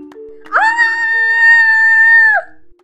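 A woman lets out a single loud, sustained scream of terror lasting nearly two seconds, high-pitched and steady, then cutting off abruptly, with a faint low hum underneath, on seeing a frightening woman with pupil-less eyes lying beside her in bed.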